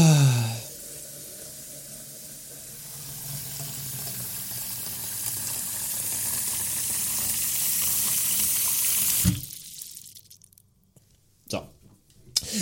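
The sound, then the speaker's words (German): Water runs steadily from a tap into a coffee machine's water tank for about nine seconds, a fairly loud gush, then cuts off, followed by a few quiet clunks. “jetzt ist wieder das Wasser leer von dem Kaffeeautomaten.”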